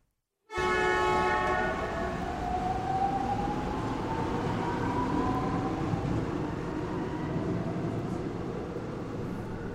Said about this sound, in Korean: 도로시와 노숙자는 1호선 전철을 탔다.